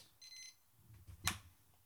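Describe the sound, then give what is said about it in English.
A brisket cooking timer alarm gives a brief, high electronic beeping burst, then falls silent, followed by a soft clunk and a sharp click as it is switched off. No one speaks. “Just shutting up my uh, brisket alarm there.”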